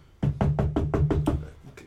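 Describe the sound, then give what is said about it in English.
A rapid series of about seven firm knocks on a door, evenly spaced, followed by one fainter final knock. No one speaks. “you hear a knock uh, on the door.”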